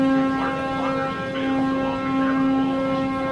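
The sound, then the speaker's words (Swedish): A boat's horn blows one long, steady, low tone with rich harmonics as the boat backs out, with the Statue of Liberty in view, sounding loud and unbroken throughout with no talking over it. “Där tutan lite.”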